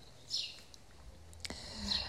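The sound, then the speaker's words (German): Faint birds chirping outdoors on a somewhat windy day during a walk, two short high-pitched calls about a second and a half apart, over soft, breathy background noise with no one talking. “Es ist nämlich etwas windig, aber wie du vielleicht hörst, die Vögel freuen sich und zwitschern fröhlich und begleiten uns heute wieder.”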